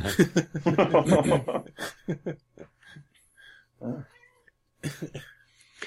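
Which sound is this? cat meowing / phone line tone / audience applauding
cat meowing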